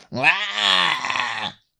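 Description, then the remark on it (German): A single drawn-out, rasping scream of a gorgon turning its ugly head, lasting about a second and a half, harsh and groaning with a strained, wavering pitch, voiced by a person imitating the creature, then cutting off into silence. “Der Gorgone dreht seinen hässlichen Kopf in deine Richtung und stößt einen fürchterlichen Schrei aus.”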